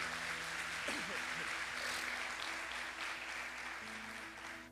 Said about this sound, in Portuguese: Você pode aplaudir a ele aí em nome de Jesus?